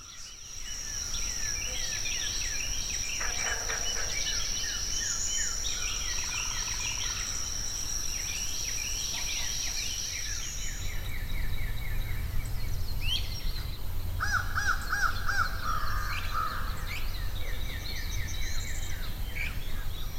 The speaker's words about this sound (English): leave you this Sunday at Caddo Lake on the Texas Louisiana border, home to a flooded forest of cypress trees.